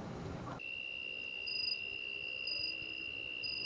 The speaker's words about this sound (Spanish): Y esta vez me tocó cerrar este podcast con un coro de grillos. Un paisaje nocturno espectacularmente hermoso, frío y musical.